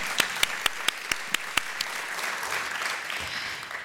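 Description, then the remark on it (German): Audience applause rises into a dense wash of clapping, led by a few sharp claps in a quick rhythm that fade into the steady crowd noise, greeting the speaker's family in the audience. “Die ist nämlich auch hier, liebe Familie. Applaus”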